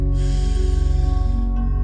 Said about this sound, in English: Let's get quiet. Let's get still. Let's take a deep cleansing breath in,